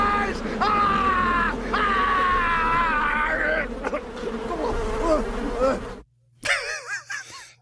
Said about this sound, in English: Oh no! Not the bees! not the bees!